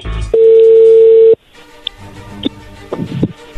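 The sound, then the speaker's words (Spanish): A telephone dial tone before a phone call, humming loudly at one steady pitch for about a second, then cutting off abruptly, leaving faint line noise and a few soft clicks. “le va a llamar el lobo, ¿ok?”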